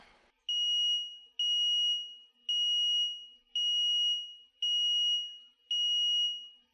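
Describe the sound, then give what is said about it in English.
A person imitates an aircraft ADI comparator warning tone, using the exact frequency and period given in a report: six shrill, high-pitched electronic beeps in a steady, evenly spaced rhythm, each about half a second long, clear and alone with no talking. “The report actually told me the exact frequency and period of the warning, so I can kind of imitate it.”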